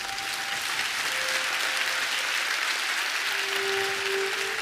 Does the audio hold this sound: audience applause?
yes